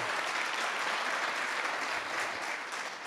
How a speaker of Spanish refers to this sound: Dale un aplauso fuerte a Dios.